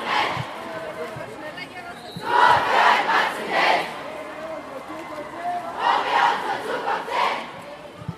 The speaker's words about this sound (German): wir sind jetzt hier an der zweiten Schule angekommen und zwar am Frauenlob, an der Frauenlobschule, auch in der Mainzer Neustadt noch. Das ist ja quasi nur ein Steinwurf vom Rabanus Maurus Gymnasium. Und es werden wieder lauthals die Parolen gerufen.